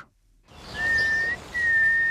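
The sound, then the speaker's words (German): Two long, steady whistled notes, each held for about half a second with a short pause between, clear over a soft outdoor background hiss: a biologist standing in bushes in Berlin's Tiergarten whistles to get a nightingale to sing. “steht im Gebüsch und pfeift. So versucht die Biologin, eine Nachtigall zum Singen zu bringen.”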